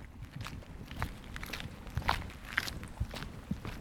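Footsteps crunch along a gravel road between self-built houses, heading down to a boat jetty on a pitch-dark, pouring-rain October evening, at a steady walking pace, roughly seven or eight gritty steps over a constant background hiss, with no one speaking.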